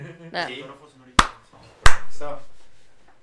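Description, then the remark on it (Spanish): Two sharp, loud hand claps about two-thirds of a second apart, with people talking before and between them, and a long fading tail after the second clap. “¿Aplaudimos? Sí.”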